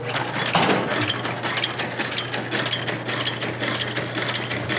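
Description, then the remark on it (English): A candy cutting and wrapping machine runs steadily, a loud mechanical clatter of rapid, regular clicks over a constant low hum, with faint high whirring tones recurring throughout. Its knife cuts the candy and the paper, and a plunger pushes each candy into the paper to wrap it. “We then put the candy into this machine, which goes down here and that knife cuts the candy off.”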